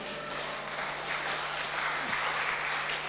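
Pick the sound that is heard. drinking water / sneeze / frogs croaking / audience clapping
audience clapping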